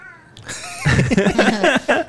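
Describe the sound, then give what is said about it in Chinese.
A cat named Beibei greets listeners with a quick run of loud, wavering meows, their pitch sliding up and down, after a brief quiet start, with no one talking. “贝贝猫跟大家问好”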